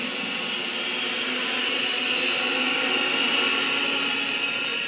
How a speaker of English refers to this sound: Give God a big hand.